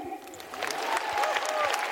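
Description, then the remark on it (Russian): An audience breaks into applause for a performer's 20 years on stage, a dense crackle of many hands that builds and holds steady, with faint voices mixed into the clapping. “А уже 20, аплодисменты мне.”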